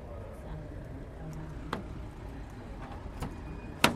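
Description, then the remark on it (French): A door being unlocked with keys and opened: a few sharp metallic clicks and a louder final clunk, spaced apart over a steady low background rumble. “quand tu ouvres la porte ils font ah ouais”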